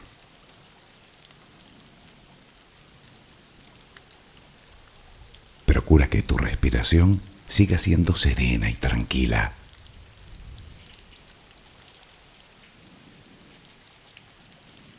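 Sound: rain falling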